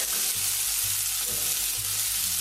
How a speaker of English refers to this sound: I'm not going to toast the cumin seeds for too long. Just giving them a bit of a shake.